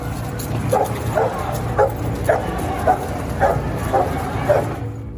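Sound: police dogs barking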